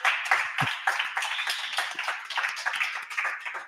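A burst of applause from many hands for the day's first news item: dense, steady clapping with crisp overlapping claps that stays loud and even for a few seconds, with no voices over it.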